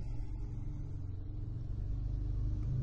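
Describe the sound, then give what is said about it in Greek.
A steady, low engine rumble fills the cabin of a car as the driver sits waiting on a road, droning continuously and evenly at moderate level with no talking over it. “και άλλη μια φορά κάθομαι και περιμένω στο αυτοκίνητο σε έναν εξαιρετικό δρόμο”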